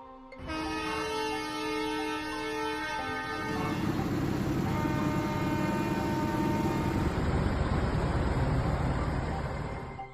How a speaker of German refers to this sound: Die Bauern machen mobil. Auch über Südbadens Straßen rollten und hupen mehrere tausend Traktoren. Die Landwirte protestieren gegen den geplanten Wegfall von Vergünstigungen etwa bei der Kfz-Steuer oder beim Agrardiesel.